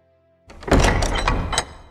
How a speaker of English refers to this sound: But until then, the doors to the House of Mario are closed.